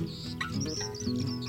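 A lark sings a quick run of high, warbling chirps and trills that rise and dip, layered over a soft, steady low drone.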